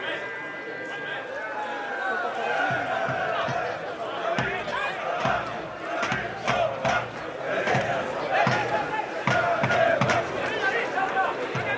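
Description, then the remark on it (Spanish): Football supporters in the cheering stand at the Álvarez Claro, on the side opposite the broadcast booth, chant together in a sustained roar of voices, with rhythmic accents and sharp percussive hits punctuating the steady, fairly loud wash of sound throughout. “Hay que decir que la grada de animación se sitúa en el lado contrapuesto a la cabina de retransmisión de la prórroga, o sea que se escucha de grada a grada.”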